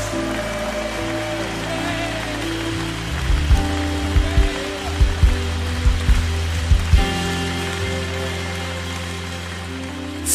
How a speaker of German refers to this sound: wisst ihr was? Jetzt geben wir unserem König, unserem aufgestandenen Herrn nochmal so einen richtigen, mächtigen Ostersonntag Applaus.